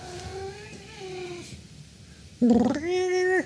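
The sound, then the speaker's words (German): A cat that has just woken up meows: a softer, drawn-out mew first, then after a short pause a sudden louder, insistent meow that stretches into another long call. No one speaks. “Ja, ja, jetzt ist das auch andere hab, Katzentier wach geworden.”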